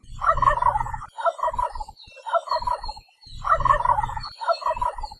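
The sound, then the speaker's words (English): Two loud, rapid gobbling calls from a male wild turkey, each a rattling burst of throaty notes followed by quicker repeated gobbles, with no talking. “But that gobble sound that we all associate with turkeys is actually only produced by the male, and usually during mating season to let other females know he's in the area.”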